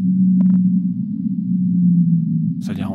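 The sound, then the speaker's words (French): A steady, loud low hum of a sped-up whale call drones for the full three seconds. A short click comes early, and a brief burst of higher noise enters near the end. “Elles émettent toutes des sons très très basse fréquence, c'est-à-dire en dessous de 30 Hz”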